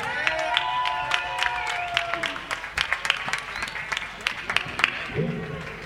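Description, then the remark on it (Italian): A live concert audience applauds steadily for the band's bass player as he is introduced, a dense patter of many clapping hands with whistles and cheering voices rising over it, the applause continuing loudly throughout. “Un applauso ad Alex Cirulli, Jeremy.”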